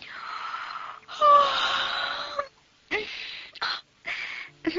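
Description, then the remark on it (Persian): A long, drawn-out voiced yawn, fairly loud, stretching with a groaning rise, followed by a few shorter breathy exhales and sighs trailing off. “تا که سرانجام یه روز صبح درست با برآمدن آفتاب نقاب از چهره برداشت و با اینکه اون همه دقت و ظرافت رو آرایش و پیرایش خودش به کار برده بود خمیازه کشون گفت”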